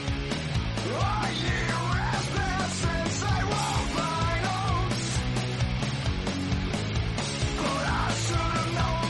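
A heavy metal cover of a song plays loudly and steadily, with thick distorted guitars, pounding low drums and a harsh, half-yelled lead vocal riding over the wall of sound.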